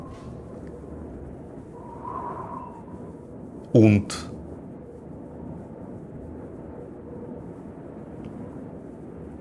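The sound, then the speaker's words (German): A storm rages outside as a steady, low roaring rumble fills the background, broken midway by one sudden loud crack. A voice briefly speaks near the start. “Und dann kommt dieser eine Moment, wo man plötzlich nur mehr den Sturm toben hört da draußen.”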